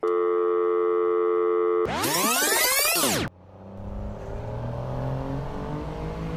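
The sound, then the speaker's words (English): After steady electronic tones and a sweeping whoosh, the downstairs kitchen area of a big bus takes over as it travels through the night in northern England from Glasgow, around four in the morning: a continuous low engine rumble with faint rattling, steady and moderately loud, with no one talking. “I'm downstairs in the the kitchen area in this big bus rattling through the night in North England, just coming down from Glasgow here.”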